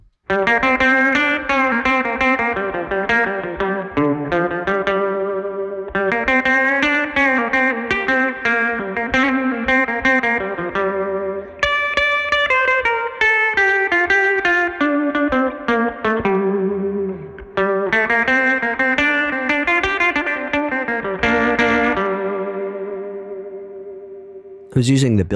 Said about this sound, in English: how about a surf example using more of the Magnatone style vibrato?